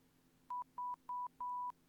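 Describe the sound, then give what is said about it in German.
Four electronic beeps, three short ones and then a longer tone, sounding at an even pace over a quiet, steady background hum, with no one talking. “Das heißt, ich kann jetzt einfach random mittendrin was piepen.”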